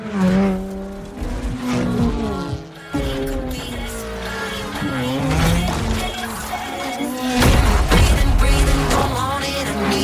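Cars in the video game Forza Horizon 4 roar and rev continuously, engines shifting pitch up and down, with tire squeals and skids cutting through; loud throughout, a brief dip near the third second.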